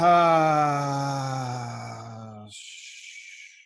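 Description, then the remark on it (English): A long, loud voiced exhale in a breathing exercise, like a steady humming moan, held for about two and a half seconds before trailing off into a breathy, unvoiced rush of air. “And you want the exhale to be almost twice as long.”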